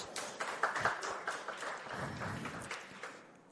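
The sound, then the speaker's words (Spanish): A crowd applauds the young men (los muchachos) steadily, a dense wash of many hands clapping at once with a few sharper claps standing out, without any voices. “Un aplauso a los muchachos.”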